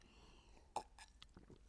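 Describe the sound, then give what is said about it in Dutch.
Quiet mouth sounds of someone sipping water: a sharper slurp followed by a few soft gulps and wet clicks spread over a couple of seconds, with no talking. “Even een slokje water.”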